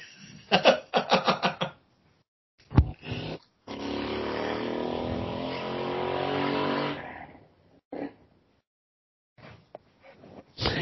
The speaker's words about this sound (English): It was perfect that nobody was speaking when that motorcycle went past.